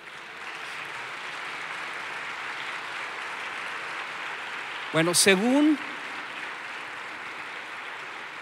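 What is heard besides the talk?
audience applause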